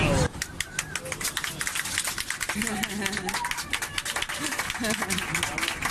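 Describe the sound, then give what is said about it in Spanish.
Passengers on a Ryanair airplane break into sustained, dense applause after a marriage proposal is accepted. The applause fills the whole stretch, with excited voices and cheers mixed into the clapping. “Bueno, ha dicho que sí, por eso eh, estáis oyendo los aplausos oh. de la gente que iba en un avión de Ryanair el pasado jueves”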